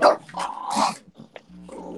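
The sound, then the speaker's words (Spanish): A dog makes harsh, rasping gagging noises, a few rough bursts with a throaty growl-like edge and brief pauses between them, with no one speaking. “Esperemos que esté todo bien, que, el perro no, se esté atragantando.”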